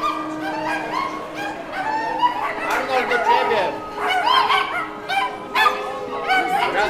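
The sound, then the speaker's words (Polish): Several dogs, part of a whole pack of dogs and cats with people getting off a train carriage, bark and yip in repeated short bursts, loud, with a steady hum underneath and a person speaking briefly among the barks. “Z jednego z wagonów wysiadło kilka osób w towarzystwie całego stada psów i kotów.”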